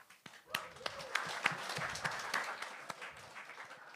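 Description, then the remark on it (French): Modest applause from a comedy show audience, clapping to answer whether anyone in the room is monogamous. A steady patter of many hands with a few sharper individual claps popping out above it, fairly soft overall and lasting about four seconds without any talking. “Par applaudissement, euh, est-ce qu'il y a des gens monogames dans la salle?”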